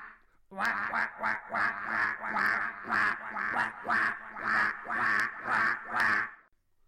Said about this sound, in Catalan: De nou l'oca va tornar a cloquejar i la seva veu fou retornada per l'eco.